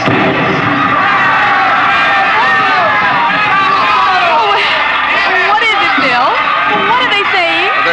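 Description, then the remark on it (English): A dense, loud fiesta crowd shouts and cheers all at once in a plaza in Mexico on a spring night, many overlapping voices yelling and calling out in a festive roar that never lets up. “Mr. and Mrs. William Travis stood on the edge of the yelling crowd”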